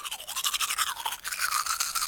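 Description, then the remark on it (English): Steady scrubbing of a toothbrush against teeth, a bright, wet, bristly rasp in quick back-and-forth strokes that continues without pause, with no voices. “Ah, yes, perhaps not everybody knows this, but among the many experimental inventions of the ancient Egyptians, like the plough and even makeup, there is also the toothbrush.”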